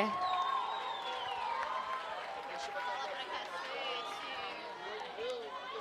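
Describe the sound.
Audience applause for a girl called up to answer a question about life after the pandemic, mixed with a lively crowd, many overlapping voices cheering and chattering at a steady, fairly loud level for about six seconds.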